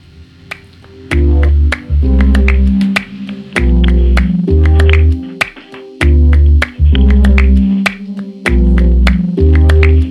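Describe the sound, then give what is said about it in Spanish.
A pop song with female vocals plays loudly, driven by thick, pulsing bass and crisp snap-like percussion in a steady rhythm, with brief drops where the beat cuts out. “Pues después de la canción las despedimos y hablamos de otra coseña Vamos a escucharla.”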